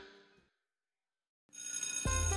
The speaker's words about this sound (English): A bell rang, loud enough to wake the dead.